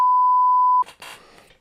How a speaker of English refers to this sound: You should beep out those F words too. Uh, I no. like it when you use the beeping. Why? It's funny. Yeah, the only way you can make a beep is if you say the name.